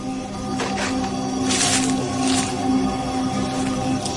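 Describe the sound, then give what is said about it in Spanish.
A low, sustained creaking groan with several heavier crunching surges, as the ground creaks under something heavy and unidentified walking about. Fairly loud, with no voices. “Es como si el suelo crujiera, como si algo pesado estuviera caminando por aquí, pero no sé qué será.”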